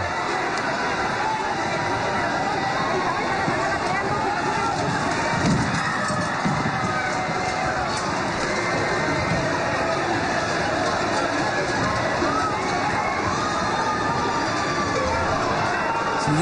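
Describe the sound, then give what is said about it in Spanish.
A dense, steady roar of a large crowd fills narrow Spanish streets during the San Fermín running of the bulls in Spain, at 8 a.m. on 7 July, with scattered shouts and low thuds as about 10 bulls charge through, continuous and loud for the whole stretch. “Y siguen corriendo los toros por San Fermín.”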